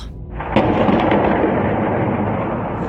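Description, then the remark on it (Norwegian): A deep, heavy boom erupts and rolls on with a long rumbling tail from a rocket or artillery strike, as Russian forces attack a town in Ukraine 20 km from the Russian border, with no voices present. “Vi hører drønn fra enten om det er rakettnedslag eller artillerinedslag, vi vet ikke riktig.”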